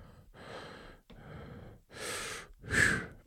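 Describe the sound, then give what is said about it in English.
Heavy breathing into a microphone: four slow, noisy breaths with short pauses between, the last one loudest and harshest, almost gasping. “God, I can hear that breathing again.”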